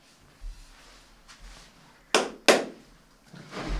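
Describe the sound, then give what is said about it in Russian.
Two loud, sharp knocks of a water bottle being set down hard on a table, about a third of a second apart. “Бля, мы каждый раз так громко воду ставим, я думаю, как же...”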